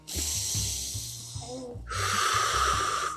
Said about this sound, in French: … prend une grande respiration